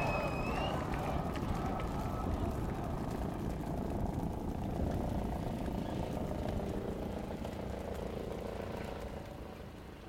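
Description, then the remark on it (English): A steady, loud rotor drone fills the whole stretch, with a dense low thumping roar like a helicopter passing, fading slightly toward the end. “I like the helicopters.”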